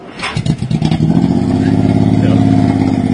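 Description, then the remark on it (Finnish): A motorcycle engine sputters to life with a few quick bursts, then settles into a loud, steady revving drone, with no talking. “Ei moottoripyörä.”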